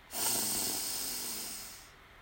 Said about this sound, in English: We'll take three deep breaths here. We extend our belly on the in breath and exhale with a loud, audible sigh on the out breath. So, deep breath in